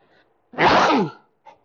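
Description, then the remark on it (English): A single loud sneeze bursts out for about half a second, preceded by a faint breath and followed by a short exhale, with no talking. “bless you or bless me”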